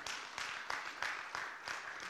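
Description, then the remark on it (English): An audience applauding, a steady wash of many hands clapping at a fairly soft level, with slight rhythmic swells every fraction of a second and no voices. “You can clap there.”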